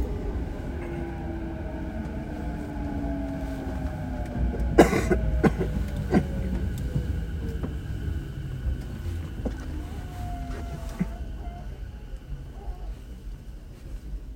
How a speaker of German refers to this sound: Wie traumhaft ruhig es ist, kann ich euch mit einer Aufnahme beweisen. Die stammt aus einem rappelvollen Zug aus der Rush Hour.